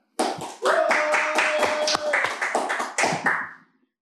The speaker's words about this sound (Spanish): Yo propongo aplaudir a todos los profesionales. Lo propongo.